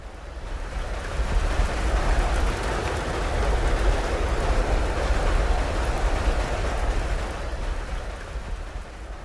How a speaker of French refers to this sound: Il est observable lorsque l'on enregistre les éléments qui constituent notre environnement, à savoir l'eau, la terre, le feu et le vent, d'enregistrer ce même bruit blanc.